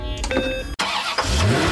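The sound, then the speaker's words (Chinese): A car engine starts up: a whirring, tonal crank, a split-second dropout, then a loud steady engine roar with a low tone climbing in pitch as it revs. No voices. “汽车发动的声音”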